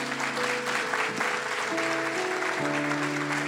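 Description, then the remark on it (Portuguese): A crowd applauds the Lord steadily and densely for the whole stretch, a continuous wash of clapping, while sustained keyboard-like tones hold and shift in pitch beneath it. “Pode aplaudir o Senhor, é isso aí.”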